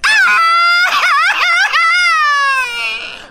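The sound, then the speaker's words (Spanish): A loud, exaggerated crying wail from a single voice, high and quavering, wobbling in pitch before stretching into one long sustained cry that slowly trails off. “Él no está gritando un grito mexicano, él está llorando.”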